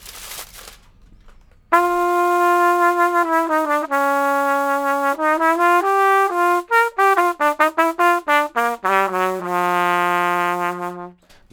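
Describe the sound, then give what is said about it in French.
A trumpet muted with aluminium foil placed over the end of the bell plays a buzzy, kazoo-like melody, starting with long held notes and moving into quicker detached notes that rise and fall in pitch, loud and alone. “ça fait un petit peu un effet casou.”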